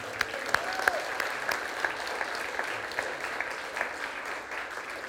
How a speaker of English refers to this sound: You guys can clap or anything like that.